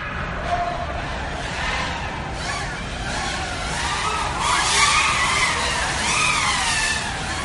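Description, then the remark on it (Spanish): High-pitched electric whines from FPV racing drones swoop up and down in pitch as they zip past one after another at a point on the race course, layered over a constant roar of outdoor background noise. “como ves, este es el el sonido de los drones al pasar por uno de los puntos de la”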